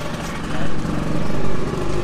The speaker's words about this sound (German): Lass mal den Roller vorbeifahren kurz.